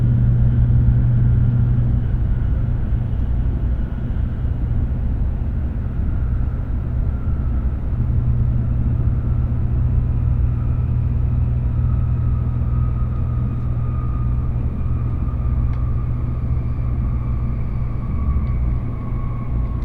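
A Tokaido Shinkansen Kodama bullet train, travelling from Hamamatsu toward Shizuoka and about to stop at Kakegawa, runs with a steady, loud low rumble and a faint whining tone that slowly drops in pitch as it slows. The sound is constant, with no voices.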